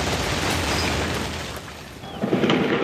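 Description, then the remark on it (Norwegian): Gunfire from soldiers shooting into the air in Cairo in the afternoon rattles out over a steady, roaring wash of noise, with a few sharper bursts and booms standing out, especially toward the end. No one speaks. “Slik høres det ut i Kairo i ettermiddag. Soldater skyter i luften”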